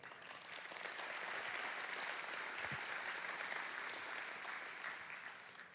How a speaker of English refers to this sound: That deserves a round of applause to them.